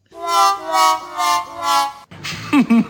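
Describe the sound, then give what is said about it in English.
A loser sound effect: four brassy, buzzing notes that step downward in pitch, loud and sustained, then a person starts talking right after. “This weird news also begs to have the loser sound effect.”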